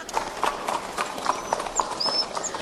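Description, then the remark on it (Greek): Horse hooves clip-clop at a steady trot as a horse-drawn carriage moves along a street in Athens, each hoof strike sharp and regular, with faint high whistles or chirps above. “Το αμάξι του πήγαινε.”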